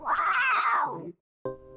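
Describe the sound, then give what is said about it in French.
A panther's drawn-out, tonal growl, loud, wavering before sliding down in pitch. After a short silence a second call starts abruptly and is cut off. No one speaks. “Aussi, elle s'exprime par des grognements qui ressemblent à des ronronnements de chats.”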